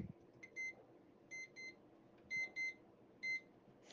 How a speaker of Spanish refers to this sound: Para empezar mi día, escucho mi alarma.